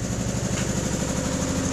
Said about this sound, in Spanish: Ay, perdón, estando haciendo limpieza y se escucha mi lavadora.